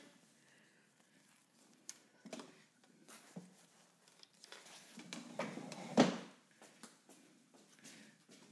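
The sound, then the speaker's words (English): A chair creaks and squeaks amid scattered small knocks and shuffles, with one louder, drawn-out squeak near the end before things settle again. “Sorry for the squeaky chair.”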